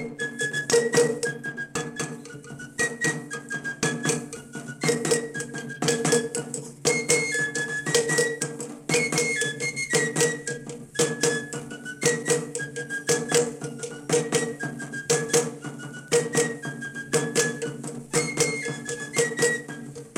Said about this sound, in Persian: بیایم یک مثالی رو بشنویم از همین موسیقی میکستک ها که اسم ترکش هست زاپوتک